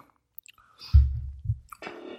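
Quiet swallowing as someone takes a couple of sips of Saranac Root Beer: two low, wet gulps in quick succession, followed by a short breathy exhale and a faint lip smack.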